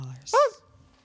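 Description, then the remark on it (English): A man briefly imitates a puppy's whimper, a single short, high, wavering yelp lasting about a quarter second, fairly loud against a quiet background. “He sounded like a puppy dog when he did”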